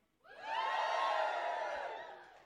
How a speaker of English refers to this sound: Give a cheer if you like Halloween.